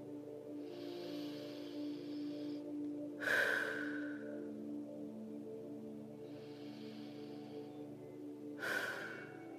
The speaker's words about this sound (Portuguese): E essa respiração vai limpando e purificando você internamente.